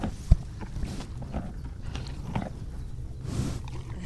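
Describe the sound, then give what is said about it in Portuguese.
A donkey eating straw and sniffing the microphone, with dry crunching and rustling, broad breathy sniffs against the microphone, and a sharp knock near the start. “Este é o som da Inca, a comer palha e a cheirar o microfone da Antena 1.”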